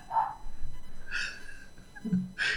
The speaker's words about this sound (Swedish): Ja, det är en hund som skäller utanför.